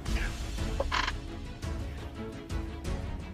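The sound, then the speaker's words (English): A person lets out a loud, rasping roar with their voice, holding a gravelly, croaking growl for about three seconds with a few harsh surges, voicing a character going into a rage. “Release a roar.”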